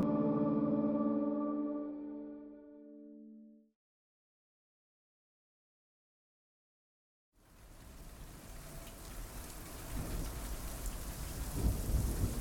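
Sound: thunderstorm with heavy rain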